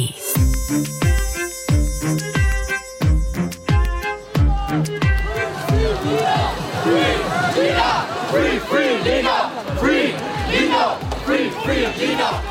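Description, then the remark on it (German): A large crowd at a solidarity rally for Leipzig student Lina E. chants the slogan "Free Lina" in loud, rhythmic unison, backed by steady drum beats, before the chanting swells into a dense, roaring mass of voices. “Free Lina, so hörte man es in den vergangenen anderthalb Jahren immer wieder bei Solidaritätskundgebungen für die Leipziger Studentin Lina E.”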